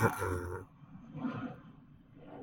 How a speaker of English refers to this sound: By the way, that's a plane. Do you hear that plane?